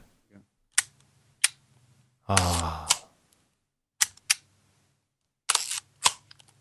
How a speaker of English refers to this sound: Yeah. oh, that's got some good sounds. Yeah, that's a that's a that's a film advance knob, kids.